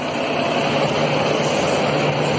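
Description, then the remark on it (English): A convoy of trucks carrying nuclear waste, including a 157-ton nuclear fuel cask from West Valley, rolls past through a residential neighborhood with a continuous low engine drone and broad road roar, holding at a steady, fairly loud level throughout with no voices. “It's nuclear waste truck and caravan rolling through my neighborhood.”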